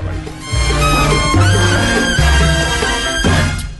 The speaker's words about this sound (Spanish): Mira esta trompeta como suena.